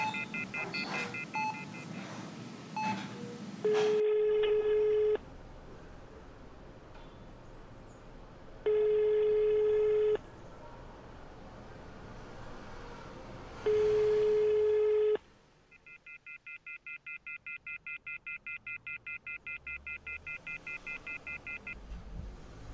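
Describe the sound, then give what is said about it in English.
A telephone signal after a dropped call: three long, steady mid-pitched tones with pauses between, then a fast, even train of repeated beeps. No one speaks. “I can't hear you call dropped.”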